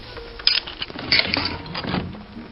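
Small metallic clicks and scrapes of a relatively simple combination padlock being picked with a lockpick, a few sharp ticks in close succession over a faint mechanical rattle, fairly quiet, with no voices.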